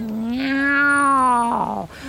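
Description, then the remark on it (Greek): A single long, drawn-out meow from Paspartou the cat, loud, holding steady before dipping at the end, with no talking around it. “Καλημέρα γατάκι.”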